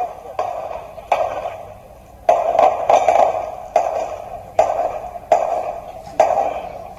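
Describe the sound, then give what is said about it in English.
A series of gunshots, about eight sharp cracks at irregular intervals, each trailing off in a ringing echo, with no voices. “It sounds like gunshots.”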